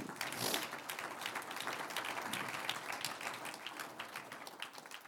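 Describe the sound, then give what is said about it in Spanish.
Steady applause from a church audience, given as an applause to the Lord after a prayer, many hands clapping in a dense, continuous patter at an even level for several seconds, with no voices standing out. “Un aplauso al Señor.”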